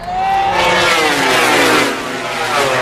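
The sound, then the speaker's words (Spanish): Motorcycle engines rev loudly, their pitch climbing and sliding back down in a continuous roar that fills the whole few seconds, with no voices. “3.000 motoristas, generando, pues según recoge el CINIC de Greuges, pues un problema de movilidad, infraestructura, de tráfico, conducción negligente, ruido, contaminación.”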